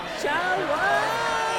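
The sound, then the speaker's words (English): A festival crowd on the final night yells together on a count of three, many voices shouting the best thing they saw all weekend at once in a dense, steady roar that holds loud for about a second and a half. “At the count of three, I want you to yell the best thing you saw all weekend.”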